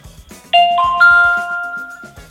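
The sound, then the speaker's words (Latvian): A Latvian voicemail system's beep tone, after a message that the person called cannot answer: three quick rising electronic notes that ring on and overlap, loud, over a soft, low, rhythmic background. “Lūdzu, sagaidiet signālu, ja vēlaties nosūtīt bezmaksas īsiņu par jūsu zvanu.”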